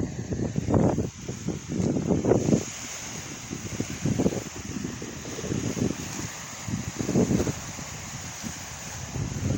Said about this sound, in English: because it's windy out here and you're going to hear the water. And I'm trying to get as close as I can right now. I want you to hear this natural waves of the lake or ocean, whatever you want to call it, and uh, out here.